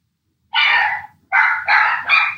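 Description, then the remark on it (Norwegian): Two dogs, Sunday and Mali, barking in the background: a sharp bark, a brief pause, then three quick barks in close succession, fairly loud, with no talking. “Det er bare Sunday og Mali i bakgrunnen som bjeffer litt.”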